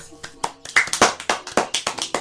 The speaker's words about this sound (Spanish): Y si os ha gustado, le damos un aplauso.